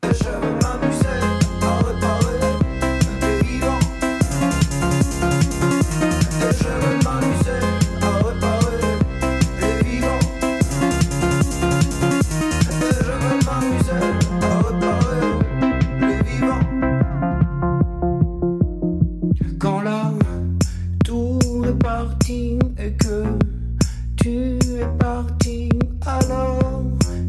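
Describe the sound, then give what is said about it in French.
An upbeat electro-pop track from the band's previous album, released in 2019, plays loud and full, with steady beats and layered synths. It cuts to a brief near-silent break around twenty seconds, then the groove returns with punchy rhythmic hits. “Retour aux fondamentaux, euh, il y a quelques années, c'est-à-dire il y a très peu de temps, en 2019, ça donnait ça”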